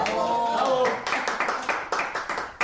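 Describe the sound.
A short burst of voice gives way to a steady run of quick, close hand claps in applause, about ten sharp claps in under two seconds.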